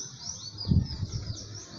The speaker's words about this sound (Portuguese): Está na árvore. Eu acho que é um pardal. Que canta na árvore com alegria.